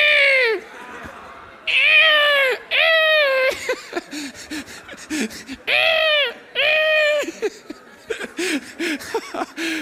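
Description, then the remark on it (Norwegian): A group of people loudly imitate the animals they would like to be, with sound and movement: mostly drawn-out cat-like meows repeated several times, then a flurry of shorter squeaky calls, all overlapping. “Og så skal vi få lov til å imitere det dyret vi ville vært. Og du kan gjøre det med lyd og bevegelse helt fritt fram.”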